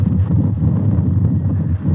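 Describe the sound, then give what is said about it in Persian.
Steady cool sea breeze by the sea buffets a microphone, a continuous low rumbling roar that stays loud for the whole stretch, with no voices. “اینجا بودیم این نسیم میومد نه صدای باد میشتم این نسیم خنک میاد کنار این دریا”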